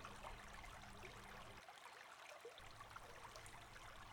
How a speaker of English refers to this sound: From here, it's hard not to drift off into a peaceful snooze, listening to the waterfalls over the rocks and the rainforest birds calling.